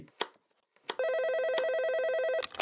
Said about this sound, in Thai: ขอบคุณมากลูก นี่พ่อกำลังหั่นพักอยู่พอดีเลย